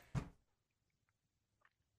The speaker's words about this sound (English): Can you shut the door, please? Thanks, bud. Thank you.